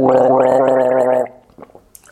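A loud gargle with a bubbling, voiced tone, recorded while a man gargled on a woman during sex, lasts just over a second, then cuts off, leaving a few faint wet clicks and smacks.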